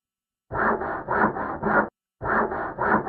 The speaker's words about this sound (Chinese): 咯吱，咯吱。这时候，我听到了一阵锯东西的声音。此时我睡意正浓，也没管那个声音